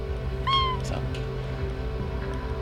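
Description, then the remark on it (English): A house cat named Lotus gives one short, rising-then-falling meow, followed by a couple of faint soft rustles from the cat, all over a steady low background hum, during a WKDU radio show. No one speaks. “That rustling in the background is from my fuzzy co host, Lotus.”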